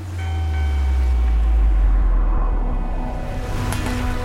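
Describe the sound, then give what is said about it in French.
A ship's bell, on a ship caught in a storm at sea, rings with long, sustained metallic tones over a heavy, deep rumble of rolling sea and creaking hull, with a sharp knock near the end. “Vous entendez cette cloche C'est celle d'un navire dans la tourmente, un navire qui vogue vers un massacre.”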